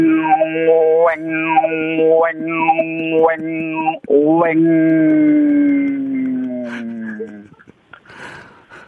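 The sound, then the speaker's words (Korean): A human voice imitates the call of a curious cicada: four rhythmic, whiny rising-and-falling cries about a second apart, then one long drawn-out tone that slowly sinks and fades. “자, 궁금증이 많은 호기심이 많은 매미 들어보겠습니다.”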